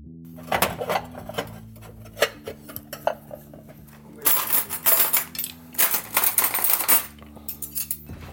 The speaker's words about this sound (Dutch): Maar ik moet nog wel even tafel dekken.